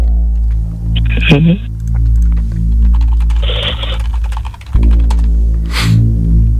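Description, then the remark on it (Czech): Irregular tapping on a computer keyboard, a quick scatter of light clicks that runs through the whole stretch over a steady low electrical hum. “To ťukám já.”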